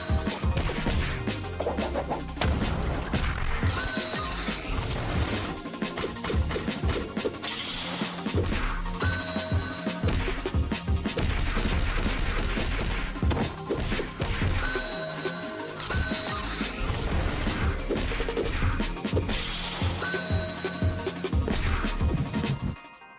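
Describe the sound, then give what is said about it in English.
Rapid combat hits and crashing impacts from a trailer for the indie fighting game Shattered, featured in the Indie Fighting Game Fest, loud and repeating throughout over a dense, driving musical backing with no speech. “Anyway, there you go. That's Shattered.”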